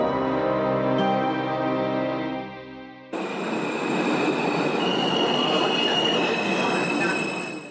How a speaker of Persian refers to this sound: قطار تکانی خورد و از حرکت ایستاد و از صداهای تاپ تاپ و ترق که از دور آمد متوجه شدند که چمدانها از رفا پایین افتادند